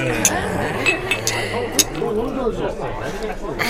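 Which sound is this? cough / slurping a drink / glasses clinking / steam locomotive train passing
glasses clinking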